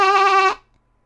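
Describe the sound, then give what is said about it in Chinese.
A single short bleat from Herbert, a sheep with thick, dense wool, loud and steady in pitch with a buzzy, nasal tone, lasting about half a second before cutting off into silence. “浓密厚实的毛实在是太暖和了，咩！”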